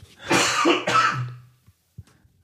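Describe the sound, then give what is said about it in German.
Two harsh, forceful coughs in quick succession, loud, followed by a few faint breaths and small throat sounds as they trail off. “Oh Danke fürs Husten triggern.”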